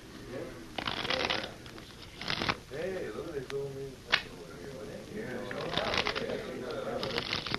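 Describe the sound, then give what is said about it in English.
Playing cards are shuffled in several quick riffling bursts before a card game, crisp, with a voice murmuring briefly between the shuffles and a soft background hum. “Mind if I shuffle them once? Just for luck?”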